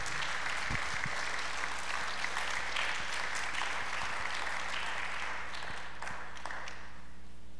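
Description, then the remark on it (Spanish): An audience applauding God loudly during an afternoon church service: dense, steady clapping from many hands that holds for several seconds, then thins slightly toward the end, with no voices standing out. “¿Alguien puede aplaudir a su Dios esta tarde fuertemente?”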